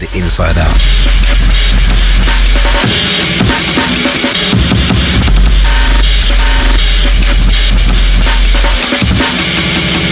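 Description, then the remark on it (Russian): A loud drum and bass track built on a chopped, rapid amen breakbeat, with dense rattling snares and cymbals over long, deep sub-bass swells that drop out and return. “Это совершенно особенный амен трек среди тех, что я слышал.”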